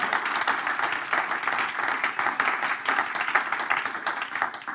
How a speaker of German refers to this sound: Ich denke, wir sollten Ihnen nochmal einen fetten Applaus geben. Das habt ihr mega gut gemacht.